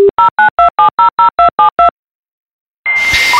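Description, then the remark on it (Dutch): A dial-up modem connecting to the internet over a telephone line from a colour computer running Windows 3.11 in the late 1990s: a brief tone, then a quick run of about ten evenly spaced touch-tone dialing beeps, a short silence, and the start of a loud, hissing modem handshake screech. “Een paar jaar later, ik denk dat het zo eind jaren 90 was, toen eh, werd het mogelijk om via een kleurencomputer met kleurenscherm, Windows 3.11, eh, om, om een internetverbinding op te starten.”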